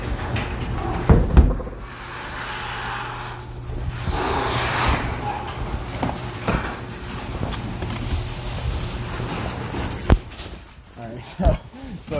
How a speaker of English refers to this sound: Hold up. Garage door coming.